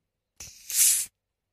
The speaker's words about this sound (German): am Öffnungs-Kohlensäure-Entweichungsgeräusch, wie der Fachbegriff lautet, erkennt, ob es eine Cola, eine Fanta oder eine Sprite ist. Aufpassen.